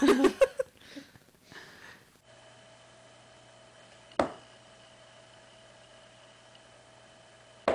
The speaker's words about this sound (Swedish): Det här är då alltså ett ljud... Som en kanin utför? Ja. Eller? Det är väl att de stampar? Ja, jag tänkte, stampar de med foten? Är det väl ett ja. slags varnande ljud? om det är någonting som är, upplevs obehagligt.